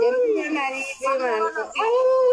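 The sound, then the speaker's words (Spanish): A person's voice imitates a wolf howl: long, wavering, rising-and-falling tones in about three loud breaths, with no other sounds around them. “Nos iremos a aullar también allá al bosque Chapultepec, mana.”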